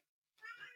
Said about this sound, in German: Entschuldigung, ich glaube, man hört im Hintergrund meine krantige Katze. Ja, die ist gerade reingekommen. Sie sah nicht glücklich aus, ja.